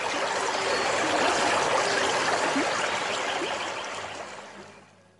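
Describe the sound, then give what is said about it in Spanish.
A stream of running water rushes and burbles steadily, a dense continuous wash of noise that gradually fades out over the last second. “Bueno, lo lindo de esto es este, escuchar las tonadas y el ruido del agua al final.”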